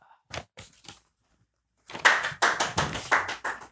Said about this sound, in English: Oh, I guess I'll just clap for myself.